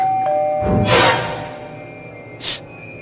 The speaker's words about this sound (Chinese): 电话还没通，门铃突然响了。